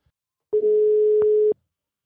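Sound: telephone ringing tone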